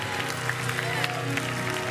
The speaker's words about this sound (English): Well, praise Jesus. Come on, give the Lord a big hand clap.